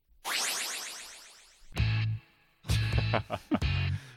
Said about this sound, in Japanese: しょっぱなのジングルさえ初々しいということで、ね、なるほど、まあ、まあまさに今流れたジングルとかですねですよね